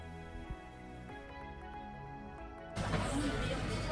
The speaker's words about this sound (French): bon, on prévient tout de suite pour le son, hein, parce qu'on entend une petite musique et il y aura plein de sons parasites parce que nous sommes dans un café.